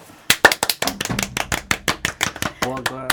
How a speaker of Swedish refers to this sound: En applåd!